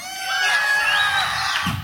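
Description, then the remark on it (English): A crowd of children screams and shouts together, a loud, shrill, sustained roar of overlapping high-pitched voices lasting a couple of seconds without a break. “Scream.”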